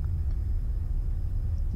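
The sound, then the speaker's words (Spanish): A car engine rumbles steadily for the whole stretch as the car chases a white car, a deep, continuous low-pitched drone with no voices over it. “Sigue persiguiendo al auto blanco.”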